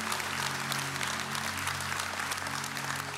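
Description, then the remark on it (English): A large audience at Orchard Church applauds steadily, celebrating those saying yes to Jesus: a dense, continuous wash of clapping at even loudness, with faint low sustained tones humming underneath and no speech. “Hey, can we celebrate big time Orchard Church right now?”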